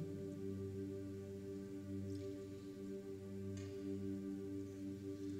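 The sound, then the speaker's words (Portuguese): A couple of soft, wet sips and swallows of water, brief, set against a steady low electrical hum with no talking. “Só tomar uma água.”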